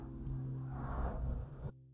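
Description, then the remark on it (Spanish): A car passes outside, a loud low engine rumble that swells and then cuts off abruptly, leaving a faint steady hum. “espero que ese auto no se haya escuchado tan fuerte”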